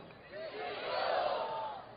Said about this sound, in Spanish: ¿Quién es la vida? Grítemelo duro.